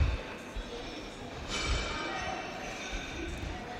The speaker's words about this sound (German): Und wir hören es auch schon. Oh ja, es, es scheppert und klappert schon. also sind anscheinend schon ein paar Menschen drauf. Hört sich so an.